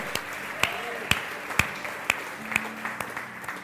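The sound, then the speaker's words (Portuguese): An audience applauding the Lord with steady, rhythmic claps about twice a second, sharp, with faint murmuring voices underneath. “Se você crê nisso, aplauda ao Senhor e diga amém.”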